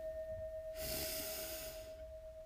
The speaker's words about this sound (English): So, let's begin. We breathe in deeply, breathe in,